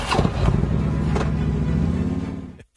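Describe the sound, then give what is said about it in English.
Ed Durr's motorcycle engine fires up as he jumps onto it and revs into a loud, throaty rumble that holds steady for a couple of seconds before cutting off abruptly. “That was Ed Durr jumping onto his motorcycle, uh, which he can now drive uh, from the Garden State to uh, the Capitol.”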